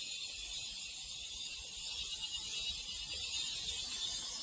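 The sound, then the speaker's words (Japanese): A dense chorus of cicadas buzzes steadily without pause on a summer morning in Australia, a continuous high-pitched drone filling the air, with no voices. “蝉の鳴き声が本格的な夏の到来を教えてくれています。”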